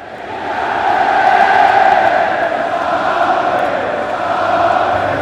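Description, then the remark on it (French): A huge crowd of Irish rugby fans at the Stade de France during the Ireland–Scotland match sings together in a loud, sustained roar of massed voices, swelling slightly early on and holding steady throughout, with no individual speech. “Tiens, on va écouter un peu l'ambiance du Stade de France lorsque la marée verte se déplace.”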